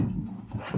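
A female dog pants and whines softly, breathy low puffs with brief whimpering rises, continuous through the short moment with no one talking; she wants to jump up onto a chair.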